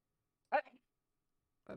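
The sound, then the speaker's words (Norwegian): A single short, sharp sneeze bursts out, followed by a brief silence before another voice-like sound begins at the very end. “Prosit.”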